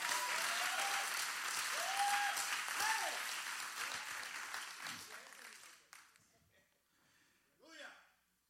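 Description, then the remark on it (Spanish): A crowd claps steadily and loudly for about six seconds, with cheering voices rising above it, before the applause fades to quiet and a single voice is heard. “Dale ese aplauso, dáselo.”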